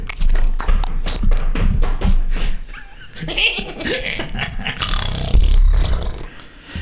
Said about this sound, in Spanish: Muy, muy ruidosos estos zapatos.